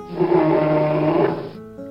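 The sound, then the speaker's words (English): A brown bear growl: a loud, rough, low rumbling snarl held steadily for about a second and a half, then cutting off abruptly into a faint, short tonal hum. “We see a brown bear,”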